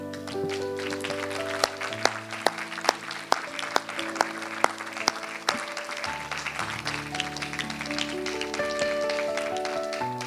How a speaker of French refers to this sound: va applaudir Dieu pour ce, ce qu'il a fait.